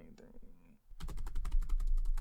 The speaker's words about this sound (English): Here, one second. Give me, give me one second here. Couple of clickety clacks on that there keyboard.